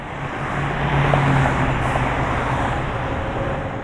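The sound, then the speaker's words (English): Steady roar of highway traffic, tires humming on pavement as random cars pass, a dense continuous wash of noise with a slight swell early on and no voices. “The hum of the tires from random passing cars would produce aperiodic background”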